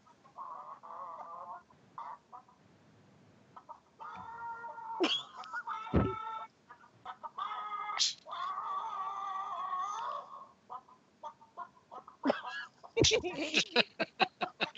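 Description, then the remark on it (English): Chicken clucks and squawks rise and fall in a rhythmic, tune-like pattern, like a melody sung in clucks, parodying a theme tune as 'Chicken Impossible', building to a quick burst of sharp clucks at the end. “what, you've never heard Chicken Impossible?”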